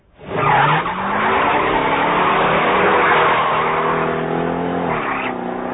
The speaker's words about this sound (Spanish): Circulaban los primeros coches producidos después de la guerra. Packard, Cadillac, Buick, Chrysler, Mercury, Hudson, Pontiac, Dodge, Plymouth, DeSoto.